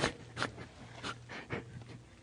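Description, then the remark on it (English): A dog pants in a car, about six quick breathy huffs in an uneven rhythm over a steady low engine hum. The panting is fairly soft and no one speaks. “this is just almost funny to me because of the dog in the car.”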